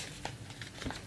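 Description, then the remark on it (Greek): Soft rustling and crinkling of paper pages being handled, with a couple of brief sharper flicks as pages turn, fairly quiet and with no talking. “Λοιπόν, θα ακούτε τώρα και τι σελίδε γιατί με την πρεσβειοποίηση μου δεν βλέπω πολύ καλά.”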